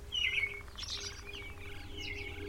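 A flock of songbirds chirps and tweets in quick, overlapping bursts, bright high calls repeating throughout over a low steady background hum.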